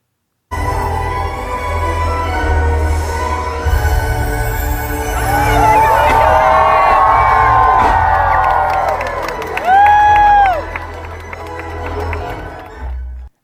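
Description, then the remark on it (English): A large crowd cheers and shouts steadily at a castle lighting, just as the castle is officially lit for the first time this season, the roar swelling midway with excited high-pitched voices, then one loud, piercing whoop rises above the din before the cheering fades out. “So this is uh, a little clip from the castle lighting, and this is just as the castle was officially lit for the first time this season.”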